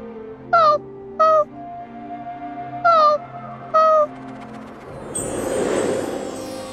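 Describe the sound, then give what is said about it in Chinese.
A pitiful fox in pain whimpers in four short, high, whining cries in two pairs, over a soft sustained tonal hum, followed by a swelling airy whoosh that fills the end. “好可怜的狐狸，此乃天山泉水，喝下便能缓解痛楚。”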